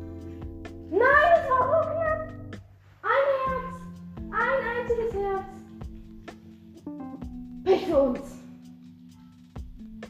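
Four drawn-out cat meows rise and fall one after another, fairly loud, spaced a second or more apart over a low steady background hum.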